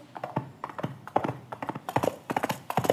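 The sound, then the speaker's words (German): Hands patter on a towel lying on a table in a quick, uneven galloping rhythm, closely mimicking horse hoofbeats; the muffled taps are moderately loud, with no talking. “Klingt, klingt original wie Pferdegetrappel.”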